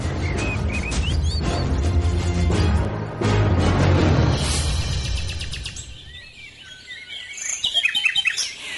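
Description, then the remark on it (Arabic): A caged songbird sings a lively stream of high chirps, trills and whistles, loud at first over a busy low rumble of background noise, then clearer and more scattered toward the end. “يا لله يا لله محلى صوته ومحلى لونه”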